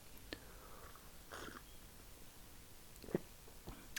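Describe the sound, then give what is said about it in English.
A soft slurp of someone sipping tea flavoured with apple and turmeric, followed by a few faint mouth clicks and a quiet swallow, otherwise hushed. “Right, let's have another sip of this tea.”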